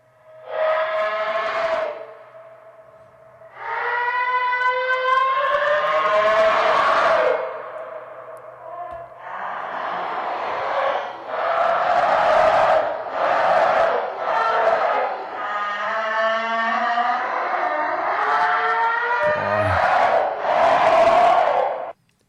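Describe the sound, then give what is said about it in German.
An EVP ghost voice recording, said to have been made in an empty cellar and recorded over three days: loud, echoing, wailing voices rise and fall in overlapping bursts, like a distorted crowd shouting, with short pauses between outcries. “Hier kommt der dritte EVP.”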